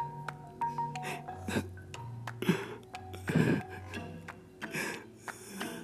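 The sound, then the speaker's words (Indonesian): A voice imitates the pained, whimpering groans a friend suddenly made while sleeping in the corner: a few drawn-out, low moaning sounds with wavering pitch and short breathy catches between them, moderately loud, with no words spoken. “temanku yang tidur di pojok tiba-tiba meringis.”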